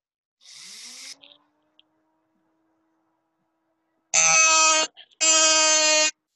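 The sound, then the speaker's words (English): A dentist's drill, switched on to work on teeth, hisses and whines up to a steady, thin whir that fades out, then two loud, harsh buzzing bursts follow close together. “And he turns on his drill.”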